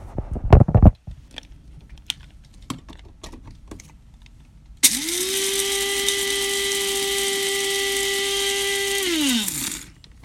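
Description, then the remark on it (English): A few seconds of scattered clicks and rattling give way to a loud, steady motorized whir that runs for about five seconds, then winds down as a coffee grinder switches off. No one speaks. “That's an authentic coffee grinder, you hear?”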